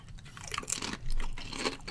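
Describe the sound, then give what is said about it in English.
Crunching of a thin, classic salted potato chip with the potato peel left on, a run of crisp, crackly bites and chews over about two seconds, with no talking. “An excellent crunch for a thin chip.”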